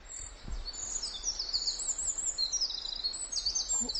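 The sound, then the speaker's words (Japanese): Real wild birds, not a sound effect, sing continuously in a beautiful mountain forest on an early-morning walk under cloudy skies, a dense layer of high, overlapping chirps and warbling phrases, with a soft low rumble of outdoor ambience underneath and no talking. “鳥が鳴いてくれるかなと思ったらもう関係なく鳴いてくれてますね”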